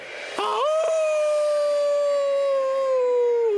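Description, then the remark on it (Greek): A single loud, sustained wolf-like howl rises sharply, then holds a long steady tone that slowly sinks in pitch, heard alone with no talking. “Ξαφνικά ακούστηκε ένα δυνατό ουρλιαχτό.”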